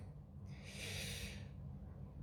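A single airy deep breath in and out rushes through for about a second over a low steady hum, then fades back to quiet. No one speaks.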